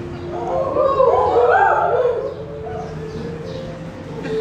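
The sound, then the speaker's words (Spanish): A group of young campers at a camp howls like dogs, wavering long cries rising and falling together for a couple of seconds before trailing off into a noisy, crowded background. “No les enseñamos a aullar en el campamento por si acaso, Pero es, es, una forma que ellos tienen de, decir, ah, aquí estamos.”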